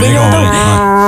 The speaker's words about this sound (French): Ça sonne comme ça, un orignal.